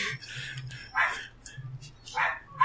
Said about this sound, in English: They're yeah. just barking in agreement.